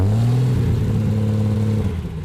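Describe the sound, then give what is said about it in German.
A vintage car engine revs loudly with a deep, throaty rumble, its pitch stepping up early on and then holding steady before easing slightly at the end; no one speaks. “Dennoch hofft auch Oldtimer-Fachmann Kienle auf ordentlich Antrieb durch die Messe Retro Classics in Stuttgart. Und dieser Antrieb darf gerne so klingen.”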